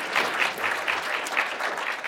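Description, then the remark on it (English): An audience claps steadily, a dense wash of many hands at a fairly even loudness throughout, with no voices rising above it. “We can clap that up. We can clap that for, it resonates.”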